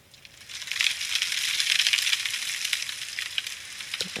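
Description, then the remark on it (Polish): A soft, steady hiss of fine drizzle, with tiny irregular patters and crackles scattered through it, rising in over the first half-second and continuing evenly without any voices. “Mrzawka.”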